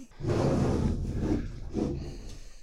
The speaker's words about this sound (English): He's tur- that's the sound of him turning the laptop towards me.